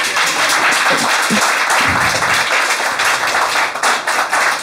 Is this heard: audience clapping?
yes